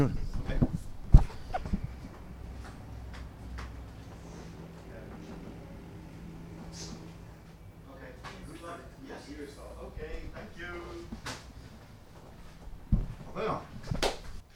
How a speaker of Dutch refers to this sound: Ehm, ik moet even de deur moet open doen.